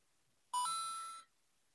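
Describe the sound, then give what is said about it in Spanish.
A single electronic doorbell chime rings out clearly, bright and tonal, sustaining for under a second before cutting off, with silence on either side and no voices. “Campana.”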